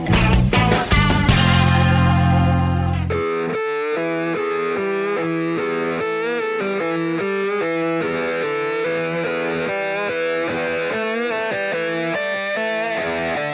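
The opening of an Argentine trio's second rock album: a burst of heavy, distorted guitar chords over a deep sustained low end, then a steady, bright, repeating electric riff with no vocals.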